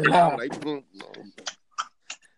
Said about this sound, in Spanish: ¿Qué, tú estás comiendo, …? Un chicle.